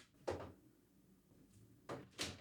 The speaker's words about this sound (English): I, I knocked over all my DVDs back there. Tatanka's there to hold it up, but uh, the Native American is not strong enough, I guess.